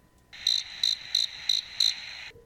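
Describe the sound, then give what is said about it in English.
Crickets chirp in a steady pulsing rhythm, five bright bursts about a third of a second apart over a continuous high trill, clear with no talking. “exactly crickets.”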